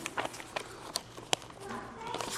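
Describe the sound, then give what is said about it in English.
Bible pages turning to Genesis chapter 11: scattered crisp flicks and papery rustles, irregular and overlapping, as if many people flip through books at once, with a faint murmur beneath. “Let's hear those pages turn. Love to hear the pages turn.”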